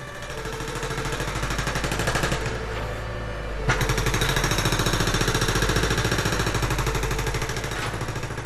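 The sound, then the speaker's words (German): A jackhammer pounds away at street drilling works on a street in Berlin in rapid, continuous bursts, loud, with a brief drop in intensity midway before resuming its relentless hammering; no voices. “Meine geliebte Berliner Ruhe wird regelmäßig von Bohrarbeiten in meiner Straße unterbrochen.”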